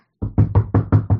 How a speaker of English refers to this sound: This is a sound of Freaky using his iPad to type something.